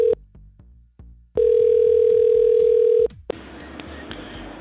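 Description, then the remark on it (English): A phone line's outgoing ringing tone of a call to a Panera restaurant: one long, steady electronic ring of about two seconds over faint line hiss, with brief clipped bits of tone just before and after. No one speaks. “We're ringing.”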